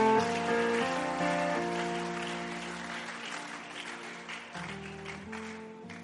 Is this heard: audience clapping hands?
yes